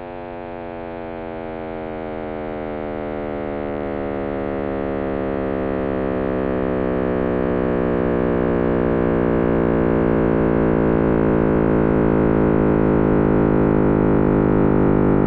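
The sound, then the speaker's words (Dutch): Cosmic microwave background radiation, the remnant of the Big Bang, rendered as sound: a dense, buzzing drone thick with overtones that slowly swells in loudness and gradually drifts in pitch, with no voices. “Zo klonk dat, de Big Bang Sound.”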